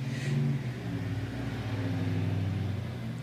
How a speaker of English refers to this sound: Just like that truck.